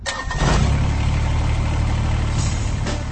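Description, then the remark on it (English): The diesel engine of a Kubota BX Series subcompact tractor cranks and catches, then settles into a steady, rumbling idle with a low chugging rhythm. No one speaks. “That's the sound of a Kubota BX Series, America's top selling subcompact tractor for over 11 years running.”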